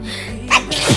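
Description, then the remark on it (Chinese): A single sharp sneeze from a person whose nose feels bad tonight, bursting out over a low steady hum, with a short breathy intake before it and a noisy, forceful release; the sneeze made them bite their tongue. “我跟你们讲，我打喷嚏的时候，就是嘴，就是牙齿突然一下开，然后合起来，就把我的舌头都咬了一下。”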